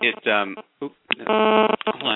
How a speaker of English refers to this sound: I think that's my phone giving me feedback. There.